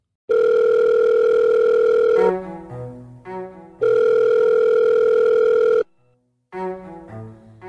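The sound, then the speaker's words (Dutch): A steady, loud telephone dial tone holds for about two seconds, breaks into a few short lower tones, then returns for another long stretch before ending with more brief tones. No one speaks. “Wees dan voorbereid op een heel arsenaal aan telefoontjes, doorverwijzingen en wachttijden.”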